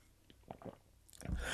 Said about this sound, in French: Prends une petite gorgée d'eau, je pense.